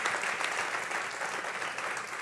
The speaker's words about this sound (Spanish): Si le va a dar el aplauso, dáselo bien.